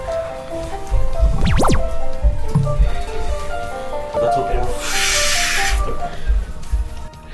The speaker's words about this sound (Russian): Что-то так шумит? Это вода, наверное?